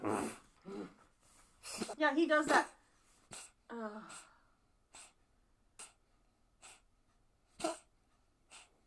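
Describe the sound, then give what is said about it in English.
A dog lets out a series of short, breathy snorts like a horse noise, roughly evenly spaced, with a few louder bursts mixed in while people talk briefly over them. “He's uh, like a horse noise.”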